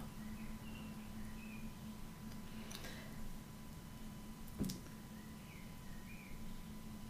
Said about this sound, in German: Die Vögel zwitschern hier so schön.